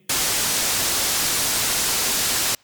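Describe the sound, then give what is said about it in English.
A burst of harsh, hissing static interference on a phone line as a caller is put through on a TV show, loud and steady for about two and a half seconds, cutting in and out abruptly with no voices. “Oh, seems to be an interference on the line.”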